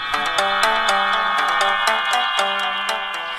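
A steady chord of airy whistling tones drones overhead as a flock of pigeons wearing whistles flies past, pulsing slightly in a quick rhythm. No one speaks.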